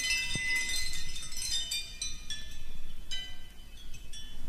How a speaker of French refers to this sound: certains peinent à reconnaître comme musique la composition sonore de Marcel Duchamp que nous écoutons